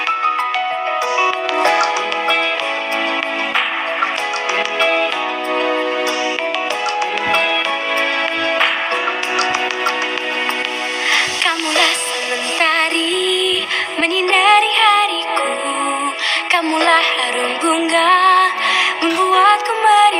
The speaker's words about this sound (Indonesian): sebelum saya melanjutkan, mari kita dengarkan dulu lagu berikut ini.